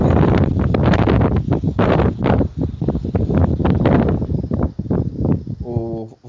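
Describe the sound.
Strong wind from a storm blasts straight into a microphone, a loud, rumbling roar that surges and drops in rough gusts throughout, with a brief voice emerging near the end.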